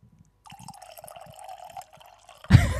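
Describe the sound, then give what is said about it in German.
A drink is poured steadily into a glass as a refill for about two seconds, its gurgling tone rising as the glass fills, then a sudden louder clatter ends it. No one speaks. “Möchtest du noch nachgeschenkt haben?”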